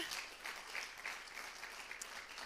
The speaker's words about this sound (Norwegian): En skikkelig ekstra applaus til